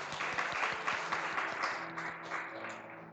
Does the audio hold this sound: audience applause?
yes